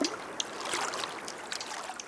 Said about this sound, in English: We were ready to paddle. We paddled over calm waters and enjoyed the sunny skies and the peaceful sounds of nature.